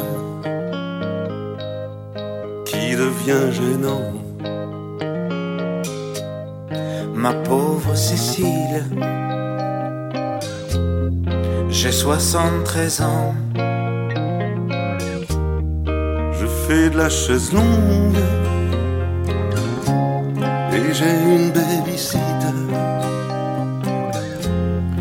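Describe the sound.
A French chanson plays clearly throughout, with a male voice singing in French over a full band: a steady bass line, rhythmic accompaniment and bright melodic instruments, loud.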